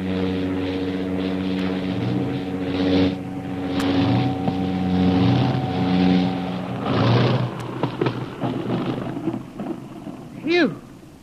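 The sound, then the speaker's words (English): A seaplane's engine drones loud with a steady throbbing hum, its pitch wavering, then a rough rushing burst builds near the end as it comes down onto the water of a lake to land. “Last week, the seaplane was about to land when a small boat was discovered adrift on the lake, making the already precarious landing more dangerous.”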